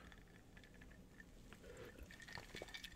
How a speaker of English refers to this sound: Sorry, I had to get some water there.